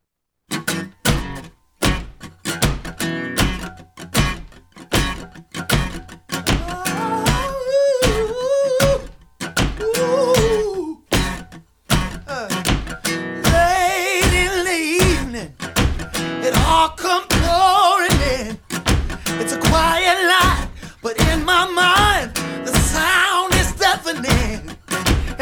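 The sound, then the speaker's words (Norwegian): A song from an album plays loud, with a steady driving beat and a sung vocal line rising and falling over full instrumentation, no talking over it. “låten som heter …, låt sånn som det her”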